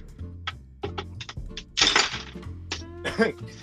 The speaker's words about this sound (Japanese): なんか、食べろうとすると、すべて氷に持ってかれてない。ガチャガチャガチャガチャ。喋り始めるとガリガリガリガリ。いいよ、喋って喋って喋って、氷割らないから喋ってよ。